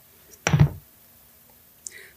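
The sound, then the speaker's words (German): A coin is tossed for heads or tails and lands with a sharp clatter that quickly fades, followed after a pause by a brief, faint metallic ring. “Und jetzt werfe ich eine Münze für dich, Kopf oder Zahl?”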